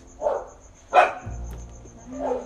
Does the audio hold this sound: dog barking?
yes